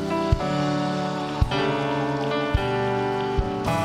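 A crowd at the close of a church service claps steadily in a dense, crackling wash of applause, mixed with sustained music and a few sharp, louder hits spaced about a second apart.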